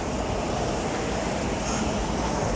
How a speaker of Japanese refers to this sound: えーと、音で分かるようにこれ車通り沿いです